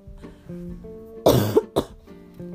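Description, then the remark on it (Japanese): A short fit of coughing from a person recovering from illness at home: a harsh, forceful cough that breaks into a couple of rapid follow-up coughs, loud, over a quiet, steady tonal background. “ごめんなさいもうこんな感じでね急に咳が出始めるんですけど”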